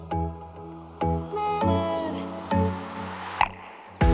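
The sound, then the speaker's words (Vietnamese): An instrumental pop song intro plays clearly, with sustained harmonic tones and strong rhythmic onsets marking the beat every half second or so, no singing yet. “hãy cùng chào đón những tài năng trẻ … trong ca khúc …”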